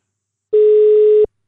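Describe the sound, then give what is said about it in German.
A single steady telephone ringback tone during a call that goes unanswered, a clear mid-pitched beep held for under a second with clicks at its start and end, surrounded by silence and no voices. “Ah, siehst du, es klingelt. Es klingelt, aber er geht nicht dran.”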